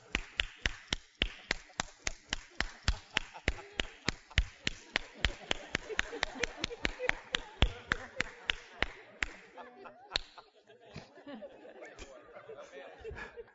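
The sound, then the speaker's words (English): Steady, rhythmic hand clapping, crisp sharp claps at roughly three per second for about nine seconds, then the beat breaks up into scattered claps with murmuring voices. “They'll clap.”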